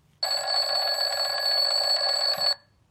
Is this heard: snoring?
no